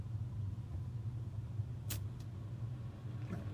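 A car engine rumbles low and steady as the car passes, with a couple of brief sharp clicks partway through and no one speaking.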